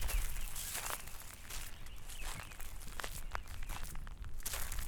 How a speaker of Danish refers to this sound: Det er hit, og jeg går over knastør lysebrun jord med vissen vegetation.